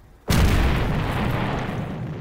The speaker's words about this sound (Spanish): De repente escuchamos una enorme explosión.